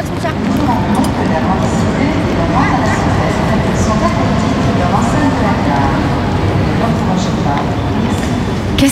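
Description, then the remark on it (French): A slow, small countryside train rumbles steadily, its deep continuous roar and rattling clatter holding an even loudness throughout, with faint muffled voices mixed into the noise. “Il était lent ce train Ah ouais, moi j'aime bien.”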